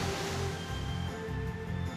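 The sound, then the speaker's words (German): A steady, loud rush of gushing water from a geyser made to spring from the ground in a Nintendo video game, spraying continuously for the whole two seconds, with faint sustained tones humming underneath. “Hier kann ich sogar Geysire aus dem Boden machen.”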